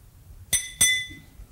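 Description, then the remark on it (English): Two quick clinks of a ring striking a glass of water sitting on a lectern, about a quarter second apart, each ringing briefly with a bright, bell-like tone before fading into quiet background noise. “You see sitting here on the lectern a glass of water.”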